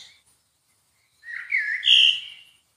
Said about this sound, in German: Oh, ein Vogel hier. Oh.